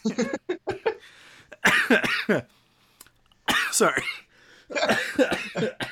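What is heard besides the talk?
coughing fit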